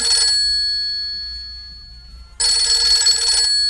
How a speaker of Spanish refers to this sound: Ahí le está sonando el teléfono otra vez a Teresa.